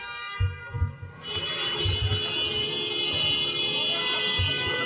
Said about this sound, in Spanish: Eso que oyen es el golpeteo de la pistola contra el vidrio del de al lado.